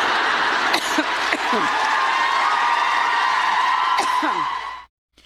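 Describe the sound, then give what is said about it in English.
A large crowd cheers and whoops loudly and continuously, with sharp shouts and whistles rising above the roar, before it cuts off abruptly near the end. “Not sure exactly what they're cheering for there uh, towards the end of that.”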